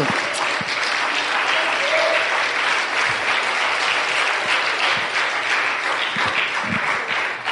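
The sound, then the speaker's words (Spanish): A church audience applauds because the church owes not a cent, in a steady, dense wash of clapping that holds at an even loudness for several seconds, with faint voices mixed in beneath the claps. “Dele un, dese un aplauso, dese un aplauso.”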